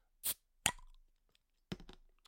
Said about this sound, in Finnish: tällä kertaa aukesi ihan perus klassikko, eli Hartwallin kreippi lonkero lasipullo.